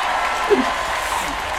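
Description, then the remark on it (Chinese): An audience applause and cheering sound effect: dense, steady clapping mixed with crowd voices, holding at an even, fairly loud level for under two seconds with no one speaking over it. “自己掌握了观众的掌声，自己给自己起哄，多好玩啊！”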